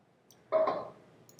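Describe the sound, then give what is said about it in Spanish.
A single short computer mouse click, fairly soft, with a quick onset that fades within a fraction of a second against quiet background hiss, made while selecting and dragging a curve in a drawing. No one speaks. “vuelvo a seleccionar la curva, perdí este mi trazo, bueno, vuelvo a darle clic aquí, otro segundo clic aquí, jalo, arrastro”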